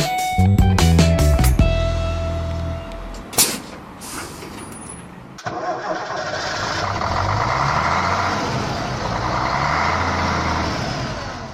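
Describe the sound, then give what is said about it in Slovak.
A tour bus engine of the Silný výber Tour travel agency rumbles steadily after a short burst of tones and a sharp air-brake hiss, settling into a continuous running drone with no talking. “Vážení cestujúci, Vítame vás na palube výletného autobusu cestovnej agentúry Silný výber Tour.”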